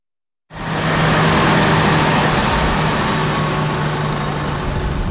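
Loud, steady rumble of six 30-tonne heavy trucks loaded with sand driving onto the Sarkandaugava overpass in Riga, Latvia, to load-test it, a deep droning roar with a low hum underneath that starts abruptly and holds for several seconds, with no talking.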